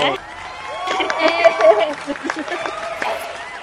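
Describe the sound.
A short burst of applause welcoming a guest, scattered clapping mixed with voices cheering and calling out over it, moderately loud throughout and trailing off toward the end.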